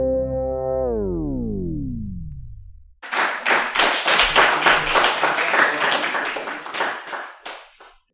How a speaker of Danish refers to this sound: Jamen, øh, det var en klapsalve